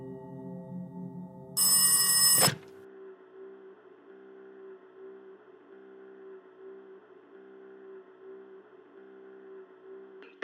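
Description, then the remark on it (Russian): A single short burst of a bright, metallic telephone ring cuts in loudly, then stops, leaving a steady low humming tone that continues quietly on its own. The call comes into Kirisu's house from his former friend. “В доме Кирису, намеренно избегавшего встречи, раздался телефонный звонок от его бывшего друга –”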